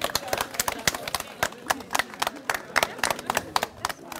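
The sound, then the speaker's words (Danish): A small group claps for about four seconds for a guest, with sharp, irregular hand claps that are steady rather than building into a roaring ovation. “Skal vi ikke lige give ham en hånd?”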